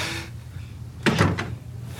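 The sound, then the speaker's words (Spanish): The door of an office in a museum is pulled shut with a solid thud and a brief rattle of the latch, followed by a low hum with no talking. “Tokio sale y cierra la puerta.”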